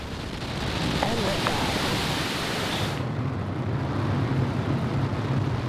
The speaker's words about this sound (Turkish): TürkSat 5A Amerika Birleşik Devletleri'ndeki Cape Canaveral üstünden Falcon 9 roketiyle uzaya gönderildi.